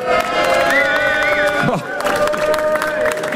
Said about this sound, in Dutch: En met een live publiek. U mag zich even laten horen. Veel, veel enthousiasme.